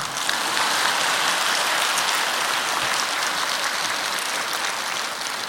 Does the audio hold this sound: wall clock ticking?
no